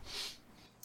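A single quick sneeze, a sharp hissy burst of breath that fades within a fraction of a second, fairly soft, with no talking.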